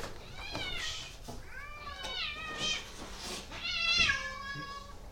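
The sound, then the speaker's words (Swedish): Several cats outside meow repeatedly in overlapping, drawn-out cries, some rising and falling in pitch, over a faint steady background hum with no talking. “Hur många katter har du där ute?”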